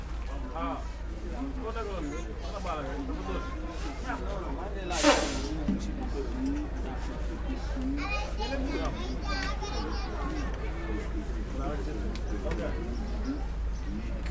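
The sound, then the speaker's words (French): Busy outdoor street ambience in Dakar, Senegal, with children's voices chattering and calling throughout, a steady low hum underneath, and one brief loud hiss about five seconds in. “Puis, il y a les rues de Dakar, des rues bruyantes comme les rues des villes pauvres, des rues où se croisent et se mêlent des sons mécaniques et des sons machiniques, les animaux, les hommes.”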